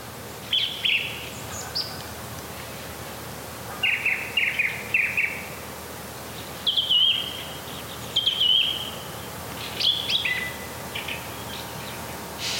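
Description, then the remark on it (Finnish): A song thrush sings outdoors at dawn as night turns to morning, in short, bright phrases, repeating the same motif two or three times, in bursts with brief pauses between them, clear over a soft background hiss. “Tämä on hieno tämä laulurastaan ääni.”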